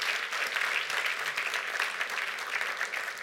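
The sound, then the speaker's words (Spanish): A crowd in a church applauds steadily, dense overlapping clapping at a sustained, even level for a few seconds, with no voices standing out. “Un aplauso, amén, a estas mujeres valientes.”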